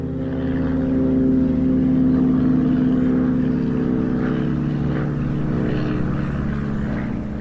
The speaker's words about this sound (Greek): Ακούς λοιπόν τις μηχανές και ε, είναι η στιγμή που θα συμβεί αυτή η αποκόλληση του αεροπλάνου από τη γη.